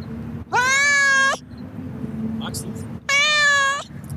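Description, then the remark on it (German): A cat meows loudly about 50 centimetres in front of the microphone, two drawn-out harmonic cries about two seconds apart, over a low steady background hum. “ich bin gar nicht jetzt so abergläubisch oder so, aber eigentlich ist sie süß”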